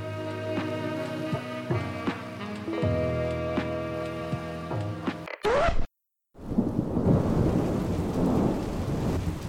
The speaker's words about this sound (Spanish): Pero a veces un día soleado se transforma en un día de tormenta.